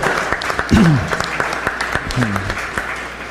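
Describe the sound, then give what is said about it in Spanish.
A crowd applauds the organizers of the event with steady, dense clapping throughout, while a couple of brief voices call out over the noise. “toda, la parte de, cómo se ha organizado esto, la verdad es que se merecen, se, merecen un aplauso, la neta, porque, porque sí está chido.”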